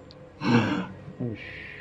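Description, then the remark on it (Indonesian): A voice imitates heavy breathing: one long, loud, forceful exhale followed a moment later by a shorter, rougher breath, close to the microphone and with no words spoken. “Itu kayak gua ngerti dia kayak orang napas cuma kenceng banget tuh bang di hmm.”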